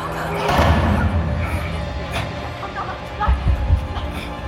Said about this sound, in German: Die Tür! Sie fällt zu!